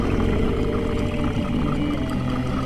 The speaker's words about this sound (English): And there's a, a mist of dust rather than blood, and this dragon lets out this curdling roar.